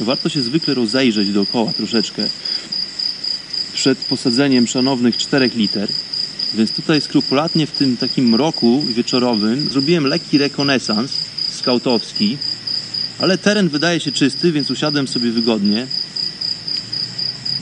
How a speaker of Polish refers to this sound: Na pewno słychać w tle, bo widzę tutaj na wykresie fali dźwiękowej, że słychać cykady. To jest dźwięk nieodzowny w tej strefie klimatycznej. Uwielbiam ten dźwięk. Jest to po prostu dźwięk transowy.